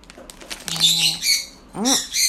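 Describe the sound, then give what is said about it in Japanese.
A peach-faced lovebird chirps in a quick series of shrill, high-pitched calls, including one harsher squawk near the end, with no one talking. “小桜インコが鳴いてます”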